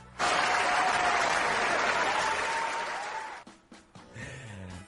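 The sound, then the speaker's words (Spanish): A burst of applause dedicated to the chat participants starts abruptly and holds at full strength for about three seconds, dense and steady, then breaks off and trails into scattered claps and a little talk. “Así que, gente, este aplauso hoy va para vosotros, para el este chat, para la gente que ha intervenido, porque habéis sido todos unos cracks.”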